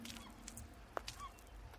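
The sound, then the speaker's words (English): A flock of gulls calls from overhead in the sky, one short sharp cry standing out above a soft, steady wash of outdoor noise, followed by a fainter call. “In the sky, there's a flock of gulls, led astray by the glow of buildings that line their route home.”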